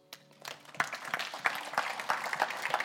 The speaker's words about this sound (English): Lord, a hand clap, guys.